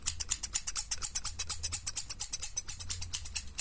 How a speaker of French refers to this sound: Bon, maintenant, un petit coup de ciseau par-ci.